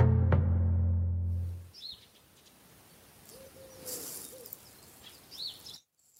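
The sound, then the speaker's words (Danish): A wood pigeon sitting on a rooftop coos low and close at the start, then its calls fade into quieter outdoor ambience. Brief high chirps from smaller birds sound. “Det er en ringdue. Den sidder her på, på taget ved siden af mig og, og har en fest.”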